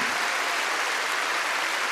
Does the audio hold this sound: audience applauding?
yes